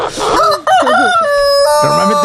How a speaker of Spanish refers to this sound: gallo del vecino, el que nos despierta, el que solemos usar.